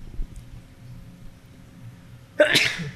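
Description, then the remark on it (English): After a stretch of quiet, low background murmur, one sharp, loud sneeze bursts out near the end. “bless you thank you”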